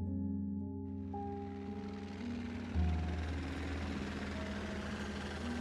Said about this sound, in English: Whirls of air whipped at my face as I looked at the dossier. The report flapped in my hand as our chopper tilted over the craggy hills, which were rapidly turning into soaring, snow touched mountains.